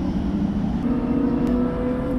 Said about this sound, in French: Et si vous entendez un gros bruit de fond, en fait, c'est les Formule 2 qui sont en train de rouler, qui sont en train de faire leur course.